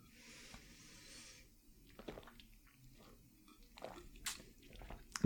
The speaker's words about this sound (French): Bon, on ouvre la bouteille. Le débouchage,